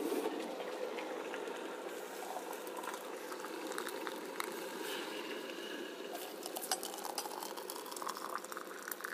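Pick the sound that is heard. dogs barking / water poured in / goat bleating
water poured in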